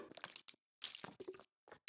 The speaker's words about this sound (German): Wichtig auch, ich merke das auch gerade, das Trinken.